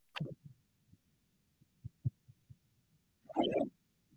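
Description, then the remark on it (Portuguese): A transition sound effect, set rather loud: a quick downward sweep, then a run of soft, low heartbeat-like thumps, ending in a brief, bright, noisy burst. No voices. “Dá uma, Dá uma estouradinha que eu deixei meio alto?”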